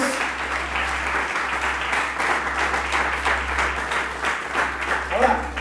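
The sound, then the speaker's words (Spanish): An audience bursts into sustained applause to God, a dense wash of many hands clapping at once, fairly loud and steady throughout, with a low hum underneath and a few voices mixed in. “¿Alguien puede aplaudirle a Dios de propósitos?”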